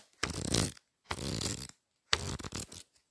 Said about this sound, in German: Das ist einfach nur mein Notizblock. Ich wusste gar nicht, dass Notizblöcke so krasse Geräusche machen können.